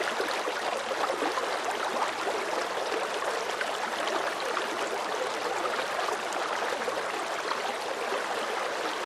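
Steady rushing river water flowing continuously, a dense, even wash of noise with bubbling texture, constant throughout with no voices.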